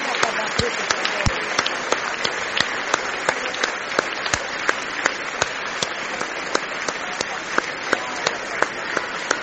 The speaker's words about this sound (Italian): Vediamo altro inchino, altri applausi.